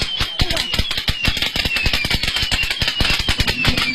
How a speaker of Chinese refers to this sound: 在南京中央门金桥批发市场的婚庆专卖区，记者看到了一些商家销售的电子鞭炮，有一米多长，红色的外观模仿了鞭炮的造型，通过开关控制鞭炮的声光效果。